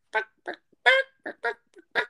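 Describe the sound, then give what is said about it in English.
A voice imitates a shy chicken clucking, giving seven short, choppy bursts in an uneven rhythm, with no other sounds around it. “Yeah, and the chicken, bro, oh. that oh. was extremely shy, is sitting there going”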